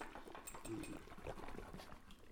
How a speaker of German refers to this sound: ich weiß nicht, ob man das hört, hört man wahrscheinlich sehr leise. Ähm, das war so ein Schüttel von der Flasche, weil die Kohlensäure,